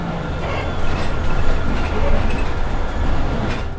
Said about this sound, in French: Non, on arrive dans 20 minutes, là, on est dans le bus.